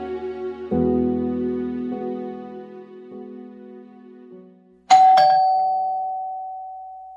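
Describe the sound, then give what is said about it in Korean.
A melodic electronic doorbell at the front door of a home chimes through a descending sequence of tones, followed by a sharp, bright ding that rings out and slowly fades, heard clearly with no voices. “일하기에 편한 옷과 챙이 넓은 모자를 챙기고 있을 때 초인종이 울렸다.”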